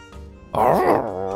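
A wolf howls at night in one short, eerie cry, a low tonal murmur swelling abruptly into a loud, quavering wail whose pitch wobbles and sags slightly before easing off.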